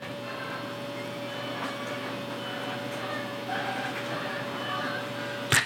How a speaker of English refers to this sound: so she's got some laundry started behind me. So that's going on right behind me. So we get that nice hum of the dryer and the washer going. So we're getting the you got to get the the bed sheets clean.